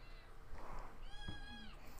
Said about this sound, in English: He's a tuxedo kitty, so we've been calling him Fancy Pants. He has a lot to say.